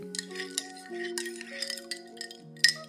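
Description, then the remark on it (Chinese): Ice cubes clink in a glass of iced latte in a string of light, bright taps, the sharpest one near the end, over a steady background of sustained, soft musical chords. “听起来像冰糖水的味道哎，冰糖水的声音呢？ 冰块又融化了。”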